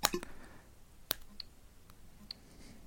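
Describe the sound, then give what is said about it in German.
A few sharp, fairly crisp taps on a Galaxy Nexus smartphone touchscreen while selecting an Apple Wireless Keyboard for pairing: a quick pair at the start, one stronger tap about a second later, then faint ticks spaced out in near silence. “Ich klicke jetzt Apple Wireless Keyboard an.”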